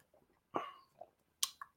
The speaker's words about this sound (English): Uh, I'm taking a sip, um, and I will be taking a sip throughout the show. And um, yeah, that's keeping me going.